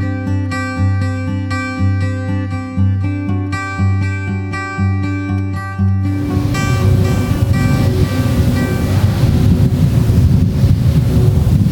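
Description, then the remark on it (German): A wind turbine, heard from directly in front of it, drones with a loud, layered mechanical hum that pulses in a steady rhythm, then gives way to a broader rushing, wind-like roar with the tones still underneath. “Was sind denn das für Geräusche hier, Felix? Von ein Windrad.”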